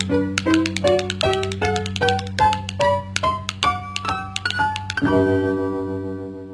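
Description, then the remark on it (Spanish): Quick, sharp tap-dance steps clatter in an uneven rhythm over a humming musical backing with bright pitched notes, ending on a sustained ringing chord. “Vamos a ver si por fin se anima usted y nos baila algo de tap.”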